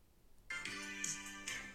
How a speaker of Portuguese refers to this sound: Epá, já, já vai o telefone. Pá, é que eu fico nervoso com isto.